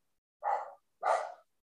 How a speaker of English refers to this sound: He always barks at the gardeners. are you barking or are you talking Latino to them? Are you talking Mexican to them? I think he's because he's wagging his tail and barking at it too.